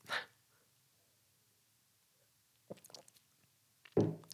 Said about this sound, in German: Ich glaube, ich brauche noch einen Schluck Wasser.